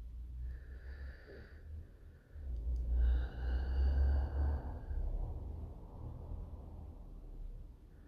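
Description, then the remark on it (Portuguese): Slow, airy breathing: a softer breath with a faint whistling, wheezy edge, then a longer, louder exhale rushing out over a low rumble. No one speaks. “sempre retornando para o movimento da respiração.”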